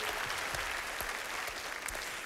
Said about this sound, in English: These are the best dog owners in the world. Give them a round of applause.